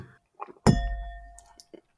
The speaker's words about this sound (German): Und für diese eigene Nominierung musst du aber jetzt ein Glas leer trinken. okay, Moment. Komm, ich stoße noch an hier.